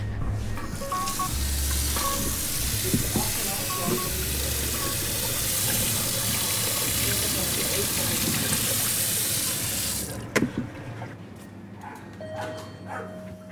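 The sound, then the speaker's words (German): Water runs steadily into a container for about ten seconds, filling it to water plants, a broad hissing rush that cuts off abruptly, followed by a few clinks and quiet handling sounds. “Zuerst mit Wasser füllen.”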